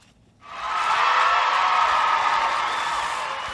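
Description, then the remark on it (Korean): A large crowd roars and cheers, the sound swelling in abruptly after a brief silence and holding as a loud, dense, continuous wall of voices until the end. “일주일 열심히 사신 여러분들에게 환호를 지르는 네, 관중의 환호성 소리입니다.”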